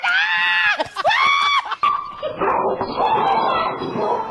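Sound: dog barking frantically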